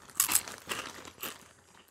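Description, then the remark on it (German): Crunching on a crunchy snack, with three or four crisp bursts of crackling bites spread unevenly over a couple of seconds, no voices. “Ach so, wegen dem Knusper.”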